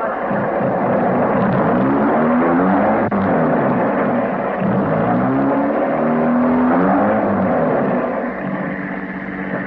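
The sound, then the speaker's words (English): A car engine roars, revving with rising pitch as it accelerates away, the loud, steady motor noise filling the whole stretch with no voices. “You bank guy, get in that car quick.”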